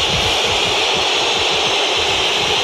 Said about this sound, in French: Monsieur Le Texier renvoie tout le monde au vestiaire. écoutez les sifflets du vélodrome.